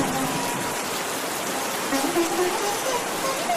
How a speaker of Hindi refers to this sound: सावन के दिन थे बारिश हो रही थी वो अपनी कोठी से बाहर निकला लंगोट पहनकर नहाया और बारिश के मजे लिए